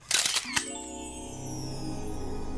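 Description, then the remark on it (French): An instant camera's shutter clicks as it is aimed at a rabbit, with a quick burst of sharp mechanical snaps, then a single click with a flash, followed by a steady, rising electronic whine that lingers to the end. “Salim s'empara de l'appareil photo abandonné et visa le lapin.”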